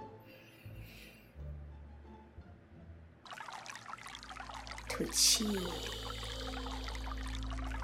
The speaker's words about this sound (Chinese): 你会慢慢听到水流声，它像小雨滴一样从你的头顶冲刷你，让这个小雨滴水流声像涓涓的细流，冲洗掉你所有的紧张，all the tension